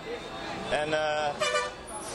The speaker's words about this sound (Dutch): alleen maar getoeter, bussen overal.